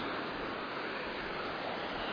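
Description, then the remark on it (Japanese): Ocean waves wash steadily against the shore in a continuous, even roar of surf, with no distinct individual breakers standing out and no voices present. “うんやっぱり海はいいな”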